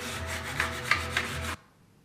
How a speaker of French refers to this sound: Poncer, hein. peindre, c'est aussi ça le design. Hein. Là, je vous parle de trucs compliqués et tout, mais en fait, il faut savoir poncer du papier de verre.